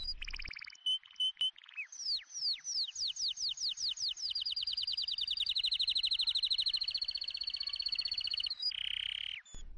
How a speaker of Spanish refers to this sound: También ese jardín tenía bellos árboles donde los pájaros cantaban con tanta dulzura que los niños dejaban de jugar para escuchar sus trinos.